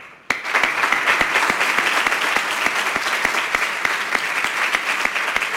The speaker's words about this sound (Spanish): Antes de dar por finalizado este acto, y sabiendo que ya se ha hecho al principio, pido un fuerte aplauso al cielo en memoria para cerrar este acto de Pepe Domingo Castaño.